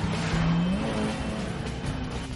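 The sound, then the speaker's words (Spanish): Car engines roar and rev steadily as the two remaining secret police cars chase Bourne's car through traffic, one engine's pitch climbing as it accelerates over a constant loud wash of road noise. No one speaks. “Los otros dos coches de la policía secreta siguen a Borne.”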